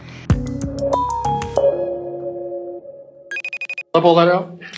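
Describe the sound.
A telephone rings before a call to the editor-in-chief of the Norwegian news agency NTB: a run of stepped electronic beeps and a held tone, then a short burst of rapid pulsed ringing, after which a voice begins speaking.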